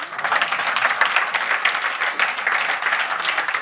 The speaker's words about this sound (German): Jetzt müsst ihr klatschen eigentlich.